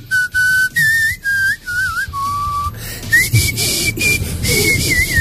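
Someone whistles a tune: a clear, high melody of short and held notes, some wavering, with brief pauses between phrases and no talking.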